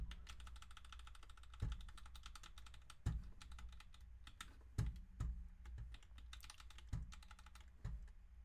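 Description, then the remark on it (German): Rapid, continuous clacking of computer keyboard keys while playing a video game, with several heavier thumps every second or so breaking the steady patter. No voices. “Digga, es ist so ein Sweat auf meiner Tastatur gerade, Digga.”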